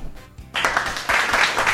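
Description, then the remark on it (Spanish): After a brief quiet moment, a burst of applause starts up and continues steadily, a dense crackle of many hands clapping at once, fairly loud. “Impresionante. Hay que aplaudirlo.”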